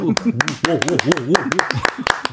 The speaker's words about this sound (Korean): 물개 박수.